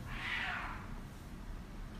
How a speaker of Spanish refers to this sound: pusimos un sonido de gato en ese momento.